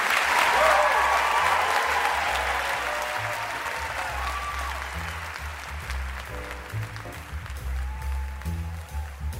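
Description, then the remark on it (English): A large crowd applauds loudly for Ben Cohen and Jerry Greenfield, founders of the Ben & Jerry's ice cream company. The dense clapping starts strong and slowly tapers, with scattered whoops and cheers mixed in and a low murmur of voices underneath. “Let's hear it for Ben and Jerry.”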